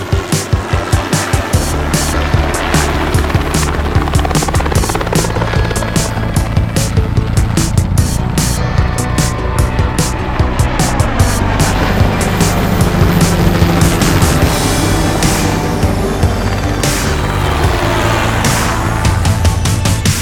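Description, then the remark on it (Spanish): A helicopter's rotor thumps steadily in a rapid, rhythmic chop over a loud, rumbling engine roar, sustained for the whole stretch with no voices. “no podía faltar nuestra sección dedicada al ala rotativa, a los helicópteros”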